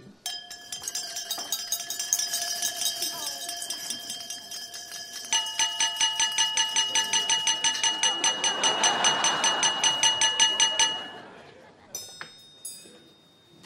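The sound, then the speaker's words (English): At a wedding reception, many glasses are tapped with utensils to make the couple kiss, in a rapid, continuous ringing clatter that builds over a swelling crowd murmur, then dies away, leaving a few scattered final clinks. “Why don't you clink your glass so they have to kiss?”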